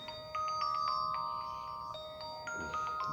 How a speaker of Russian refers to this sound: Извините. Забыл обезвучить телефон.